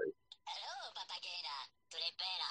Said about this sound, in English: Is that a minion? Yes, that's my that's my text message notification.